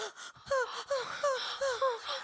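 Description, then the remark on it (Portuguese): A voice imitates a maiden's crying: a rapid string of about six high, falling whimpering sobs, fairly loud, with breathy gasps between them and no speech. “Uma maneira, eu choro como uma donzela e faço.”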